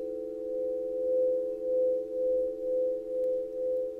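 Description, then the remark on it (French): Crystal singing bowls ring as a sound massage in a guided meditation, a sustained, pure tone, a steady layered hum that swells and softens in slow, regular pulses, with no voices. “Aux doux son des bols de cristal”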